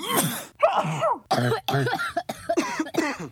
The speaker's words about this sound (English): By the way, we both have colds that we're getting over, so please excuse our runny noses and coughing and stuff if you yeah. hear it in the background.